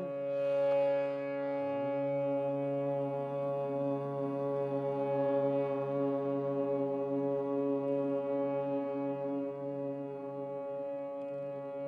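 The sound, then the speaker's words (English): A steady, low hummed note drones on without a break for about twelve seconds during a chanting meditation, rich and resonant, holding the same pitch and loudness throughout with no talking. “Begin with a deep inhalation and just humming the note.”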